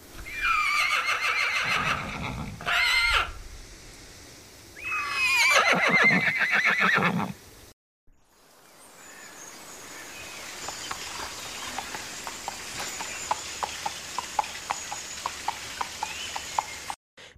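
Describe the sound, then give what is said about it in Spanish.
Several loud, shrill horse whinnies ring out, followed by a steady patter of many hooves clip-clopping over rough ground, building as a herd of horses is sought out on a mountain during a village festival. “A continuación se sube al monte en busca de los caballos.”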